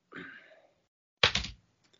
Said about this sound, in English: Oh, heads it is. Landed on my keyboard.